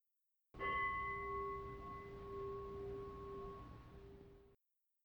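A single strike of a meditation bell to end a meditation, its clear layered tones ringing steadily for about four seconds before stopping, with no voices.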